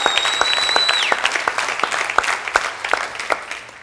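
An audience claps steadily in praise of the Lord, many hands creating a dense, even patter with sharper individual claps standing out; a high whistling tone sounds briefly at the start before fading.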